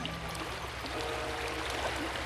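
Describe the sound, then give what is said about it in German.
A steady, continuous rush of stream water, full, flowing without pause for the whole stretch with a low rumble underneath and no voices. “warf sie in die reißende Strömung.”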